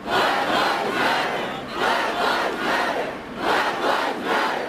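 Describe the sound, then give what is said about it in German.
A large crowd chants the slogan "Black Lives Matter" in unison outdoors in the streets, protesting police violence, summer 2020 in Washington, USA. Loud and rhythmic, with repeated shouted phrases rising and falling in steady pulses, no individual speech standing out. “Black Lives Matter schrien zig Millionen Menschen auf den Straßen in den kleinen und in den großen Städten, muss man sagen, hier in den USA, um gegen Polizeigewalt zu demonstrieren.”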